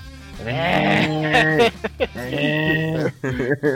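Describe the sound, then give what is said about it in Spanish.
A sheep bleats several times, loud, quavering cries with short pauses between them, followed by a few shorter, choppier calls near the end. “Ya quiero estar oyendo aquí berrear acá.”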